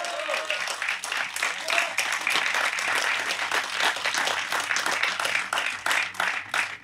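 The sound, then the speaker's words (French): A crowd at the second edition of an event applauds the volunteers, activists, staff, security and catering, a dense wash of many hands clapping at once for several seconds, sustained at an even loudness throughout. “C'est la deuxième édition, on peut les applaudir.”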